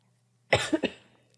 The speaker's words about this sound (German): Erstmal meckern und reinhusten ins Mikro die ganze Zeit.